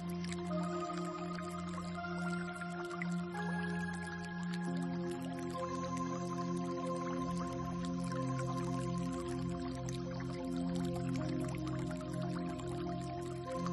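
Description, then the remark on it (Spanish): Steady water dripping, with many small drops falling in a dense, irregular patter over a sustained, humming drone of layered tones. The sound stays even throughout, with no voices. “Deja que todo este sonido te traspase, se haga parte de ti.”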